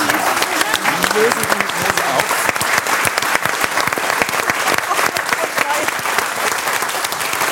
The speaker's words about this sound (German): Nimm deinen Applaus. Das ist sehr gut.